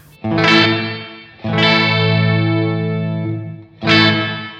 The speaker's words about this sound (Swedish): Sen så eh, modulationsläget, då kan vi ju höra här hur det svajar till då.